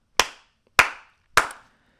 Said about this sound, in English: One last clap.